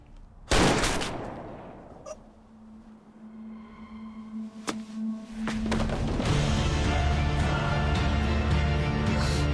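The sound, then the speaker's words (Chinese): Two sharp, loud gunshots crack out a second or so apart, fired by Detective Gao, his hands shaking from drink, at Dr. An on a rooftop; the second shot hits. Each trails off into ringing, and a steady humming drone with sustained tones builds up afterward. “高刑警喝酒喝到手抖，打了两枪才命中了安医生。”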